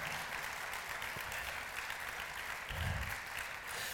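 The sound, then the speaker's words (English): Steady, dense applause from a large crowd applauding the Lord Jesus Christ, a continuous wash of many hands clapping at even loudness throughout, with a brief low thump near the end and no voices. “Let's applaud the Lord Jesus Christ.”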